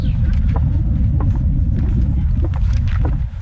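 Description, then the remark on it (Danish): Wind buffets the microphone outdoors in Luftsholm forest, producing a loud, continuous low rumble that surges and wavers without letting up, with faint scattered higher sounds flickering above it. “Det blæser altså lidt lige her, men sådan er det.”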